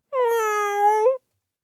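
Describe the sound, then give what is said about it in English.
A person imitates a cat with a single drawn-out meow, loud, holding a steady whining tone for about a second before cutting off, with no other sounds around it. “Here we go now with meow number two.”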